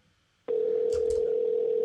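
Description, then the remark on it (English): A steady, loud telephone dial tone starts abruptly after a short silence and holds unbroken, with a couple of faint clicks or rustles near the start, as someone tries calling a person on the phone again. “Maybe I'll try calling him one more time.”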